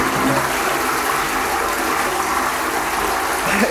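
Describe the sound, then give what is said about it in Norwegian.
A toilet in a women's restroom flushes, a loud steady rush of water gushing through the bowl for several seconds, with no voices over it. “Enn så lenge spyler jeg ned, tar dobørsten i bruk og rydder opp etter meg på kvinnetoalettet.”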